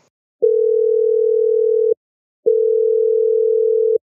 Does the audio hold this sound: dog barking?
no